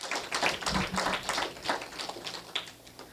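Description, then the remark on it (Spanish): An audience applauds for Jesus: many hands clapping in a dense, irregular patter that stays fairly steady and moderately loud for about three seconds, with no one speaking over it. “Le puede dar un aplauso a Jesús.”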